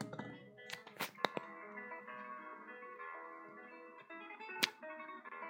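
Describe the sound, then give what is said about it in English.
A quick run of three knocks on a door, sharp and fairly loud, rises over a steady tuneful music bed, followed later by one more isolated knock. “没错，有人在敲门，knock knock knock，敲门的声音”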